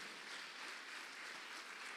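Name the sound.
audience clapping hands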